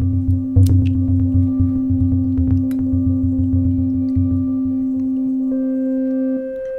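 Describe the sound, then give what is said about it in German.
A steady electronic frequency tone hums loudly with a rapid low throbbing beneath it, then shifts near the end as higher tones enter and the pitch is varied, demonstrating frequency modulation, with no talking. “das ist jetzt ein Frequenzton und der wird variiert.”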